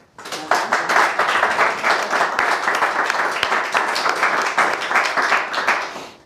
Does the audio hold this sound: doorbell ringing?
no